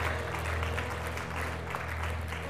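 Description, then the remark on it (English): An audience claps steadily throughout, a dense wash of many hands with no clear rhythm, held at an even level over a low sustained hum. “Can we clap and, and celebrate what's happening?”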